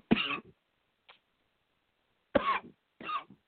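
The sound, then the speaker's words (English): A staged coughing fit: three sharp, forceful coughs burst out, the first alone and the last two in quick succession after a pause, with a faint throat sound in between. “You okay? Coughing you got that roller?”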